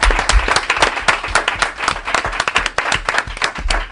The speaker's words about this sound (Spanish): Y un aplauso para, un aplauso para vosotros.